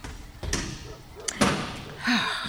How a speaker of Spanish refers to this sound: Si el caballero me encuentra, estoy fresca. Tengo que cerrar esta puerta